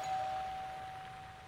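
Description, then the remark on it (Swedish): A doorbell at the Jyllands-Posten newspaper in Copenhagen, January 2009, rings with a single clear, sustained ding that fades gradually over about a second. The tone is fairly soft and stands alone against a quiet hush, with no voices. “På Jyllandsposten ringer dörrklockan.”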